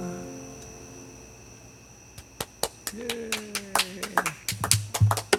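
A brief burst of applause from a few pairs of hands: sharp, uneven claps begin after a quiet start and grow quicker and denser, with a faint voice heard beneath them.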